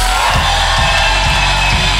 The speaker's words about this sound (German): Come on, hey, haben wir noch mal einen kurzen, aber einen richtig lauten Applaus für Jesus? auf drei. Eins, äh, eins, zwei, jetzt!